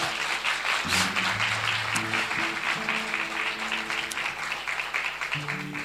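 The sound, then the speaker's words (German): An audience at a church service applauds in welcome with steady, dense clapping that fills the whole clip, while sustained low organ or keyboard notes play underneath, shifting pitch every second or so. “Wir begrüßen Sie mal mit einem Applaus”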